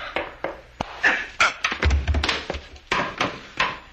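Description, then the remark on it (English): A flurry of sharp knocks and dull thuds as a man is struck with the butt of a gun during a scuffle, with one heavier low thump in the middle. Fairly loud, no voices. “You didn't have to hit him so hard, Frank. That's the way you hit people with the butt of a gun.”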